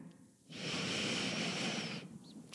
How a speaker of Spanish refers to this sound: Vamos mientras a centrarnos juntos y a respirar. Entonces vamos a inhalar.